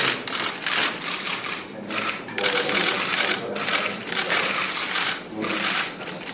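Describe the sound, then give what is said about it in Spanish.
Camera shutters click rapidly and continuously for several seconds, a loud, dense, crackling rattle of many overlapping snaps with brief dips and surges in intensity. “Son, fotos, son fotos. son fotos.”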